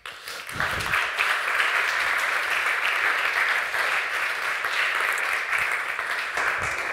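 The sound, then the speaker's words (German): A church audience applauds during a service as two people come onto the stage, a dense wash of many hands clapping at an even, sustained loudness for the whole stretch, with no voices standing out. “Gebt ihr doch mal einen Applaus.”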